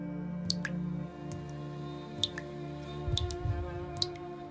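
Water drips one drop at a time in a slow, uneven rhythm, each drop a small sharp plink, over a steady low hum with no one talking.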